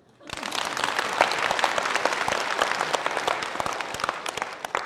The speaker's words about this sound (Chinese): Yes，鼓掌。